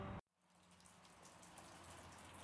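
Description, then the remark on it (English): Steady El Niño rain falls outside a back porch, a soft continuous hiss speckled with faint drops, beginning right after a brief loud burst of sound cuts off. “If you hear that, it's raining outside.”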